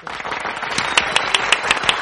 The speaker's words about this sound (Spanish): pues poner aplausos. Un, aplauso, bueno, es igual. Hay aplausos por aquí, a ver si